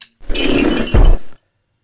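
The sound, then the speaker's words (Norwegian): A video game sound of coins spilling out when a burial chamber or stone coffin is opened: a bright, dense rush of metallic clinking lasting about a second, with a dull thump partway through, then stopping abruptly. No one speaks. “Så den deilige lyden av penger som kommer ut.”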